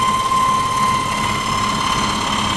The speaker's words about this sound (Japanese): 本当に粉だ粉ですねこのおがくずって言われるあんな太い木が瞬く間におがくずになってくすごい機械だ